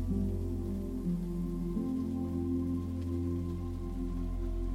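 Steady, even rain patters continuously throughout, blended with soft sustained low musical tones that hum beneath it; no voices are heard.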